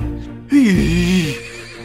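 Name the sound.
horse neighing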